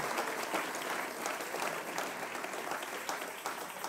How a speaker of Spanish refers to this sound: Dele el aplauso fuerte al Señor.